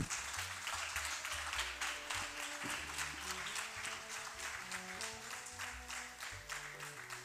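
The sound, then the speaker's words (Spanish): A crowd applauds steadily for a group of female streamers about to perform, dense overlapping claps forming a continuous wash of sound that holds for several seconds, with low music playing underneath. “Así que yo les pido, aunque estén en casa, porque no pueden estar aquí, que les den un fuerte aplauso a las chicas streamers.”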